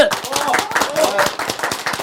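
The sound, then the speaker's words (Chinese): A studio audience of the show 金钱爆 welcomes the on-site guest, technical analyst Du Jinlong, with steady, dense clapping that stays loud and even for about two seconds, with some voices faintly mixed into the applause. “为什么掌声如雷呢？”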